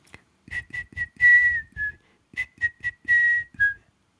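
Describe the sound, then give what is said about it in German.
A voice imitates a mother dolphin whistling to her calf: two rapid runs of high, squeaky chirps, each a quick series of short whistles ending in a longer trill, with no talking. “Und wenn jetzt die Delfinmutti mit dem Delfin, dem Delfin Kleinen spricht und sagt so, Mensch, du bist jetzt schon, schon viel zu alt für eine Windel, jetzt äh, schiff doch einfach mal so ins Meer, äh, dann würde sich das eher so anhören, so.”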